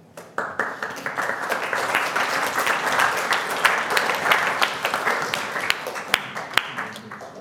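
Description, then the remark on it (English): Sustained audience applause after a speech: many hands clapping in a dense, steady wash for several seconds, with a few sharper individual claps standing out near the end as it begins to thin. “I'm hoping that by all clapping, we're uh, saving democracy and capitalism like, Good uh, stuff.”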